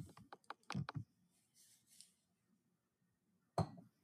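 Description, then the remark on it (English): Someone grabs a glass of milk: a quick run of sharp clinks and knocks, a quiet stretch with faint rustling, then another clatter near the end. Nobody speaks. “Sorry, I was just grabbing a, a glass of glass of milk. I hope that wasn't too noisy.”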